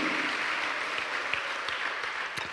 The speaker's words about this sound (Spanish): Dale un aplauso al Señor, amado hermano. A su nombre, gloria. Aleluya.